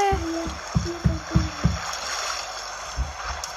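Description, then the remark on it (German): A steady, hissing rush of water from a waterfall fills the scene throughout, with a short run of four rhythmic low thumps and tones near the start before the roar continues alone. “So, und jetzt sind wir bei einem Wasserfall.”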